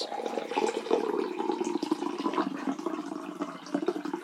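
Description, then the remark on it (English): A drink is poured into a glass as a top-up in one steady stream, a continuous bubbling, splashing gurgle at an even, moderate level for about four seconds, with no one talking over it. “Thanks for the top up there.”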